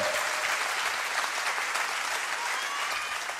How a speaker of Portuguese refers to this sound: Dá uma salva de palmas ao Senhor, porque isso é maravilhoso.